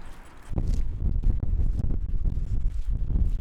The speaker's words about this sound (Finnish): Oululainen tuuli.